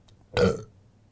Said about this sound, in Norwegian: Deilig med raping på eh, podkast.